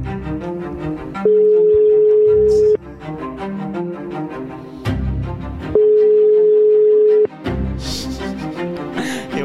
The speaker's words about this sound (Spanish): Llámale, llámale otra vez. Le llamo otra vez, ¿no?